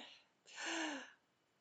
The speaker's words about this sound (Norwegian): Og så lukker jeg øynene, og så kan jeg bare puste inn.